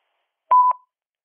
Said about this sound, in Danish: Læg venligst din holdning efter bippet.